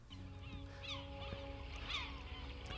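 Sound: many birds calling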